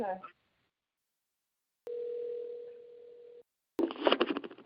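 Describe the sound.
A steady electronic ringing tone over the phone line sounds once for about a second and a half, then stops, framed by silence, with brief bursts of voices at the start and end.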